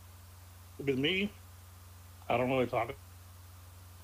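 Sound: call audio cutting out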